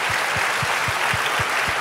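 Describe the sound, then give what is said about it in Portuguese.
A round of applause, dense steady clapping from a group with a faint rhythmic thump underneath, sustained at an even loudness with no voices over it. “Não sei, nós não estamos te vendo, mas nós queremos dar uma salva de palmas para você que está trabalhando aí a madrugada toda.”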